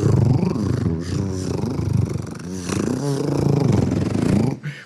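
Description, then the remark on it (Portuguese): A man's voice imitates a male pigeon courting a female, with throaty, warbling cooing rolls and snorts, repeated in uneven bursts for several seconds, fairly loud. “E casar um pombo com uma pomba, é, sabe como que é que você faz? O pombo fica assim.”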